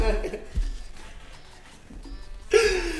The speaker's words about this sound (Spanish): Se está tragantando para los que nos escuchan en Spotify